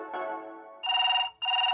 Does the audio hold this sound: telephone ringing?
yes